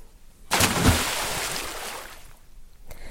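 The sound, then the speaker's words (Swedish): A person jumps into the open-air pool of a Roman bath with one sudden, loud splash, followed by a couple of seconds of churning, sloshing water that gradually settles. “hoppar i”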